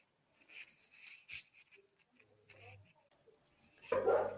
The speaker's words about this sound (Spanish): Sí, tengo un problema acá técnico con los perros de mi pasaje, perdón, pero esto está en vivo